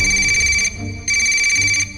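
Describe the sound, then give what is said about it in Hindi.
A phone rings in two bursts of a bright, sustained electronic tone with a brief gap between them, loud, with no voices. “तभी मयंक का फोन बजा”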